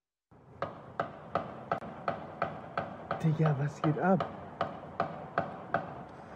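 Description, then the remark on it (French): A rapid series of about a dozen sharp gunshots at a steady, even rhythm, echoing, with a brief voice calling out partway through. The shooting is at a Jehovah's Witnesses centre in Hamburg, filmed by a witness from a window. “On entend euh, notamment plusieurs coups de feu.”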